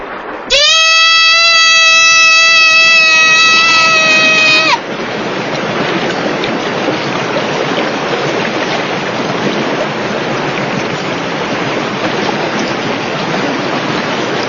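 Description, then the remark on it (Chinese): In a scene from the film Yellow Earth, a high, sustained wailing tone rings out for about four seconds, then gives way to the steady, loud rushing roar of surging river water that continues unbroken to the end. “觉得这滔滔的水声已经能够说明一切了啊！”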